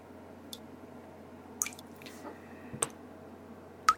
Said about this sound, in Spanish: La gota de agua insistió en romper el silencio, pero nada más. Todo seguía quieto y silencioso.